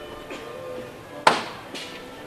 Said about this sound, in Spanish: Se pide a la gente que esté pendiente abajo, va a sonar el martillo. Segunda llamada.